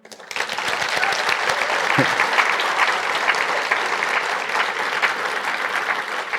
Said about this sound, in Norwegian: Så må vi eh, sende en takk til gjestene våre, og da kan vi applaudere igjen.